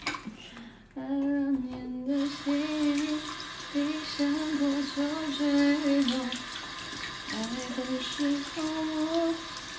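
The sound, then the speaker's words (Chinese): Dishes being washed under a running tap: a steady, loud rush of water begins about a second in and continues, with a wavering, pitched tone running faintly underneath. “你在洗碗啊？洗洗了碗才能有光明的未来。”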